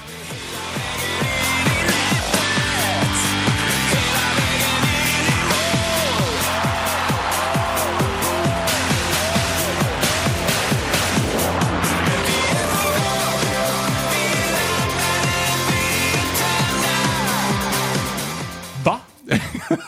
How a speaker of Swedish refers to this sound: Det är han som ska göra den officiella VM-låten.